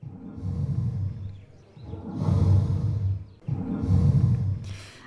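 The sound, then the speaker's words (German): Three long, deep groaning calls of a dying elephant follow one another closely, each a loud rumbling roar that swells and fades over a couple of seconds, with no voices present. “Und dieses Geräusch eines sterbenden Elefanten begleitet einen dann wohl durch die Ausstellung.”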